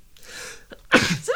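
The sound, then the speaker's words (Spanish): A single loud sneeze: a soft breathy intake building up, then a sharp explosive burst with a brief tail, no speech around it. “¡Salud!”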